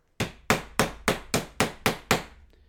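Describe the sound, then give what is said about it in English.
Hockey players bang the boards of an arena before a game: a rapid series of eight loud, sharp bangs, evenly spaced about a third of a second apart, each strike ringing out with a long reverberant tail throughout the arena. “You hear the hitting of the boards as it reverberates throughout the entire arena.”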